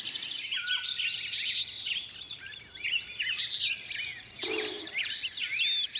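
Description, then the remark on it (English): An olive-sided flycatcher, perched at the very tops of conifer trees in the foothills of the Eastern Sierras in western North America, sings its quick 'three beers' song amid a dense, continuous chorus of high chirps and whistles from many forest birds, fairly loud and steady throughout, with no talking. “Oh, there's the quick three beers of the of the olive-sided flycatcher, which is perched at the very tops of the conifer trees.”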